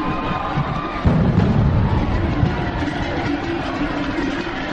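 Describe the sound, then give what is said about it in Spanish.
The bull run (encierro) stampedes along Calle Estafeta during San Fermín 2013, the week's second encierro, with a running crowd: a dense, continuous rumbling roar that surges suddenly after a moment and stays loud and steady, with a low thundering undertone. “Parece que uno de los astados ha arrollado a un pobre inconsciente con un micrófono que al parecer se habría arrojado al asfalto justo cuando se acercaba la manada”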